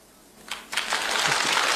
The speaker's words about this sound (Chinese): 今儿我站这儿规规矩矩说上一段， 嗯 你要爱听，您给我鼓鼓掌。